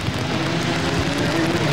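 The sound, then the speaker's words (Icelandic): Steady hiss of rain during a car race blends with the droning hum of a race car engine whose pitch slowly rises, a continuous, fairly loud wash of sound with no one talking. “Og ekki mingaði rigningin og enn er það Kristján, Einar Kristjánsson sem tekur fórustunan.”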